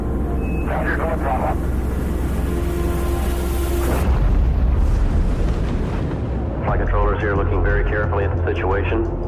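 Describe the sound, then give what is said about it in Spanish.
Archival recording of the Space Shuttle Challenger explosion on 28 January 1986: a deep, continuous roar rumbles throughout, swelling into a loud explosive burst midway, with crackly radio-style voices talking over it before and after. “La explosión del transbordador espacial Challenger fue uno de los incidentes más trágicos de la historia del programa espacial estadounidense.”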